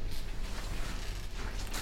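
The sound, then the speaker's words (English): Rustling and creaking of headphones being shifted and adjusted by an amateur radio operator, with a steady low rumble and a few brief scuffing bursts of handling noise, no voices. “Let me get this headphone thing sorted out real quick.”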